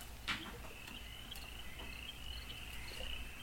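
Crickets chirp in a steady, continuous high-pitched trill, fairly quiet and unbroken, with a soft click near the start and no voices.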